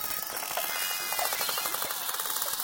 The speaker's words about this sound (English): And now for a dip in the ocean in the company of bottlenose dolphins. Bottlenose dolphins are found in temperate and tropical oceans worldwide. They use a series of clicks for echolocation to find prey and communicate.